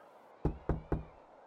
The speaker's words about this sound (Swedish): Sten var modig och knackade på den lilla dörren.